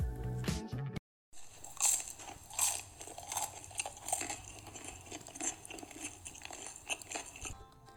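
Someone bites into a crunchy Nami chicken nugget made with chicken meat and carrot, then keeps chewing with a steady run of crisp, crackling crunches, each bite sharp and loud with no talking.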